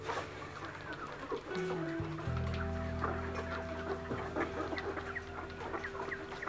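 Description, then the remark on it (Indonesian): A crowd of broiler chickens on a chicken farm clucks and squawks continuously, many birds overlapping, with a steady low hum running underneath. “Peternakan ayam tapi ayam sayur.”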